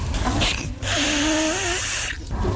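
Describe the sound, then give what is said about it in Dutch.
A person blows their nose forcefully to empty it before a nasal swab test, a loud, airy honk with a wavering nasal tone, briefly pausing, then blowing again for a couple of seconds. “U mag dan de neus even snuiten, want die moet zo leeg mogelijk zijn voor betrouwbaar eh, uitslag van het onderzoek.”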